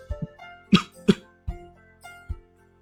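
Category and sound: human body sound, coughing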